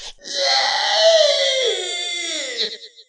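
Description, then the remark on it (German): A loud, shrill scream from a large, two-finger-thick, black, slimy worm cut through with a shovel in the earth, holding a wavering wail for about two seconds, then breaking into a few gurgling, sputtering bursts as thick black fluid oozes out and it fades. No talking. “schreit und eine dicke, schwarze Soße aus ihm in der Erde herausquillt.”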